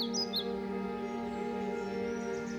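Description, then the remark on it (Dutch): A few quick, high bird chirps at the start, set over a steady droning hum of jungle ambience that carries on evenly for the rest of the moment, with no one talking. “De chirpende vogels en krekels, de kwakende kikkers, de krijzende apen, alle dieren werden er stil van.”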